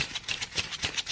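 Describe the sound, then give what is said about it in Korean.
Paper banknotes being counted by hand, a rapid, steady run of crisp flicking snaps at moderate volume, with no voices. “예, 이게 지금 지폐 세는 소리입니다.”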